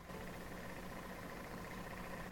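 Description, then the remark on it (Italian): A computer cooling fan, nicknamed Ventolina, whirs steadily, a faint, even mechanical hum with a slight tonal drone that holds unchanged throughout, with no voices. “Se serve, faccio partire qualche programma e, e, così il suo urlo è più potente.”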